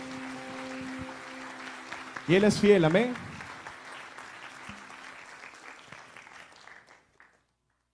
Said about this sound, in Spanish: En el nombre de Cristo Jesús, dale fuertes palmas a nuestro Señor que es Rey de Reyes.